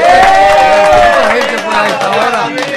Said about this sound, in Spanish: Saludos para los conductores, más conductores, ¿eh, muchachos. Un aplauso, una bulla, pues por favor.